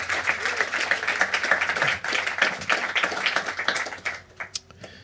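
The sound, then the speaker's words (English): Audience applause for alto saxophone player Ricardo Toscano: dense, steady clapping from many hands for about four seconds, then thinning out into a few scattered claps before fading. “Uh, please give a warm round of applause for Mr. Ricardo Toscano on the alto saxophone.”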